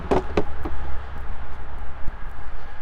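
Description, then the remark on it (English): A steady low engine rumble from a large semi truck driving by in freezing, snowy weather, with a few sharp thumps like footsteps in the first second. “Big semi driving by.”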